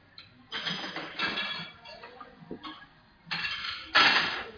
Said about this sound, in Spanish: Vaya. Están acomodando los platos.